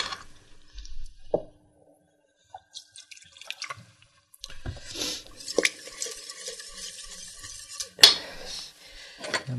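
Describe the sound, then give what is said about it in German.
A utensil scrapes and stirs a roux (flour mixture) around the bottom of a pot in irregular strokes, with occasional clinks and a soft bubbling sizzle building in the second half; no one speaks. “Nicht vergessen, dabei die Mehlschwitze immer wieder umrühren”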